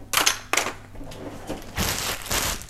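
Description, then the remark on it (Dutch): Handling noises: a pen and a small clip being picked up and put away while tidying up, with a few sharp clicks and scrapes followed by soft rustling and shuffling, no talking. “Zo, en dan heb ik deze. Ga ik opruimen. Ik heb een pen en een clipje.”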